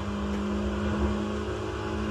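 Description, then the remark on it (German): A race car engine in a video game roars steadily at high revs while boosting with nitro during a race, a sustained droning whine with a strong low hum, holding loud and even without any talking over it. “Ha, er, war, er will äh, Wettrennen gegen mich machen.”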